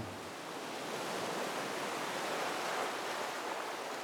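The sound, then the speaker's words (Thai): A steady, full roar of surf rushing onto the shore, a dense hiss of breaking water with no distinct individual waves. No voices are heard. “ได้ยินเสียงคลื่นเซาะฝั่ง”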